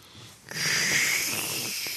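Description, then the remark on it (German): A voice imitates ocean waves with a breathy, sustained hissing whoosh that swells in after a brief quiet moment and holds steady to the end. “Mach mal Meeresrauschen.”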